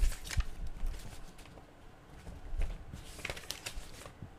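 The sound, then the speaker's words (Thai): Soft rustling and crinkling of paper with scattered crisp flicks as the pages of a contract document are turned one after another to its last page, an appendix table, with no voices. “ขออภัยที่อาจจะมีเสียงกุ๊บกุ๊บกับกับในตอนเปิดนะฮะ ก็คือในส่วนของหน้าที่เป็น appendix มันเป็นตารางหน้าสุดท้ายครับ”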